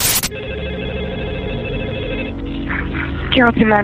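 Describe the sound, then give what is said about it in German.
A telephone rings with a steady electronic tone for a couple of seconds, fairly loud, as a woman calls the police emergency line; then a voice briefly starts speaking as the ringing fades out. “Als sie das Telefon erreichte, rief sie die Polizei.”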